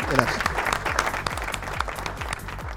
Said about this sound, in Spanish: Un aplauso